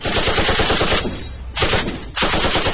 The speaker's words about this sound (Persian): مدت کمی از آغاز فیلم نگذشته که به یک بار صدای مسلسل تمام سالن را پر می کند ابتدا خیلی فکر می که این صدا بخشی از فیلم است و واقعا سیستم های صوتی این سینما چقدر خوبند و چقدر صدا را طبیعی پخش می کنند